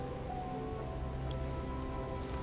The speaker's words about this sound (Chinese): 你可以去感觉一下背景音乐当中的海浪声。